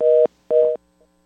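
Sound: telephone tone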